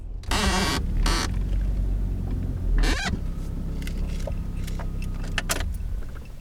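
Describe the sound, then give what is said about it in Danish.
At night in the countryside near farms, a car approaches along a road with a steady low engine rumble, while rustling and scattered sharp clicks break through. No one speaks. “Nu kommer der en bil.”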